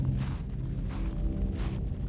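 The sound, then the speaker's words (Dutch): Three slow, evenly spaced footsteps of shoe soles crunch over gravel while walking to a front door, each a gritty scrunch, set against a steady low rumbling background. “Onder haar schoenzolen knerpte het grind.”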